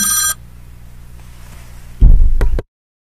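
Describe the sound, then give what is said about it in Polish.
A telephone ringtone sounds briefly and loudly at the start, then cuts off as the call is answered, leaving a low steady hum before a short burst of handling noise. “bardzo przepraszam, ale ja ten akurat telefon muszę odebrać.”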